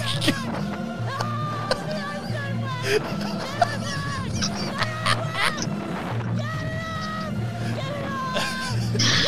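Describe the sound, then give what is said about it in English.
Harsh, agitated bird squawks ring out repeatedly, tumbling over one another amid a steady murmur of crowd chatter and low background hum, as the bird attacks a woman's head. “and the bird is just fucking evil.”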